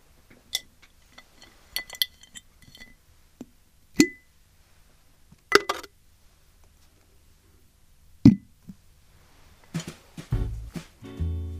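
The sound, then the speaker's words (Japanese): Several bright glass clinks ring out at irregular intervals, like objects dropping into a glass jar, followed by a brief rattling, rustling shuffle at the end. No one speaks. “ではこの言葉もガラス瓶に今日も入れたいと思います。”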